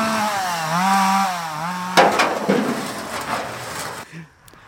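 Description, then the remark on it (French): A chainsaw engine revs with a wavering, buzzing whine, then bites into wood with a loud, rough, crackling roar for a couple of seconds before easing off, cutting wood for barricades at the ZAD. No voices. “J'ai fait les barricades avec euh, des tronçonneuses.”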